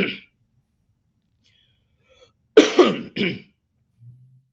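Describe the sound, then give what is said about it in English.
A brief noisy burst, then after a pause a harsh throat clearing in two rasping pushes, followed by a faint low hum. No talking. “excuse me.”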